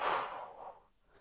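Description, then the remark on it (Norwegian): A single slow breath out through the mouth after holding the breath during a guided breathing exercise, a soft airy rush that starts fairly full and gradually fades away over about a second, with no talking. “Og pust ut.”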